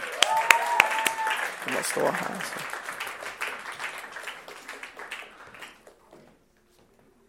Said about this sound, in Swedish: Ja, vi ger dem en applåd när de kommer tycker jag.